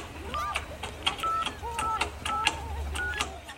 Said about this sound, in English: With sweating palms and trembling fingers, he dialed a very familiar number.